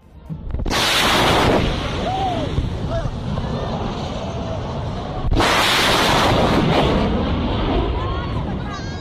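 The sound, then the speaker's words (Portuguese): Two loud, sudden booms from an airplane breaking the sound barrier, roughly four and a half seconds apart, each rolling into a long, heavy rumble that fills the air. “É como se fosse som somado com som, somado com Porque som. Porque está espremendo aquilo tudo para frente, né? O avião está indo.”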